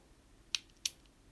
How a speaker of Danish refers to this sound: Altså, det er nok mest menneskelyde, eller lyde mennesker laver med andre ting. Så man klikker på en kuglepen,